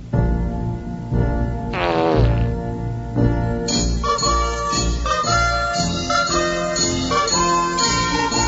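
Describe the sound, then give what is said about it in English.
On a radio broadcast, a brief, buzzy fart sounds near the start amid loud, bouncy circus-style music from A Clockwork Orange that carries on to the end; no one speaks. “I heard, I heard you fart on the air”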